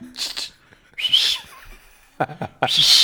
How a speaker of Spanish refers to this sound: ¡Ey! Le vas a chiflar.